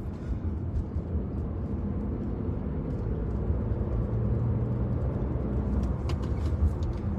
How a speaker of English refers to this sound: Cranston Police Escort. Here's a fire truck.